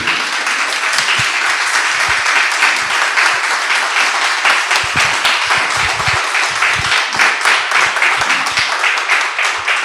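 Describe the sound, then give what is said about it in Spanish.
A crowd applauds guest Gianni Alfiume steadily for about ten seconds, dense overlapping claps at a loud, even level with no one speaking over it. “Un aplauso para Gianni Alfiume.”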